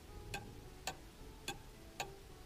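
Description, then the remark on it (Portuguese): Four crisp, evenly spaced clock ticks sound about half a second apart, each one sharp and dry against a low, steady background hum, with no voices present. “mergulhando outra vez dentro de si mesmo sem se importar com ninguém, nem mesmo com a batida do relógio.”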